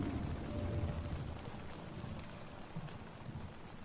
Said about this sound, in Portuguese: Em um jardim coberto, uma câmara de vidro, Brando trabalhava em silêncio, o que reforçava o som da chuva, que caía e escorria pelos vidros da grande câmara.